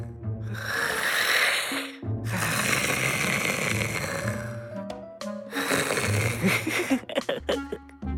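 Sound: man snoring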